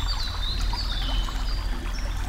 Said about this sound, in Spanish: Te estás bañando sola en el río y de repente sientes que alguien se acerca.